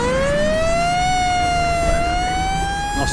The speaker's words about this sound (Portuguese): E quando vocês se dão conta, a ambulância sai com a sirene ligada.